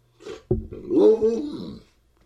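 A dog lets out a short, drawn-out vocal grumble with a rising and falling pitch, like a talking "hello," fairly loud, lasting about a second with no talk.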